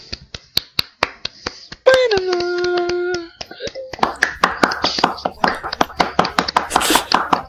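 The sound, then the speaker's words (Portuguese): Steady, evenly spaced hand claps from an audience (a claque) ring out in a brisk rhythm, briefly joined by a sustained voiced tone, then grow louder and denser with voices mixed in. “Oh, oh, palmas.”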